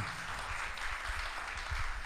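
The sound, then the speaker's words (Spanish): An audience applauds Christ for giving a sunny day, clapping together in a steady, dense wash that holds at an even level for the whole couple of seconds, with no voices standing out. “Aquí estamos vamos a darle un aplauso a Cristo porque Él nos regaló un día soleado.”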